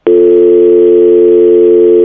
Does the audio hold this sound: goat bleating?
no